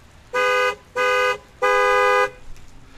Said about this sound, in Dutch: het niet-Europese geluid van de toeter van mijn rechtstreeks uit Amerika geïmporteerde Chevy klonk zwoel en uitnodigend.